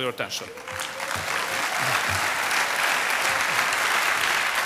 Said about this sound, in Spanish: Orbán termina su discurso y los asistentes lo aplauden.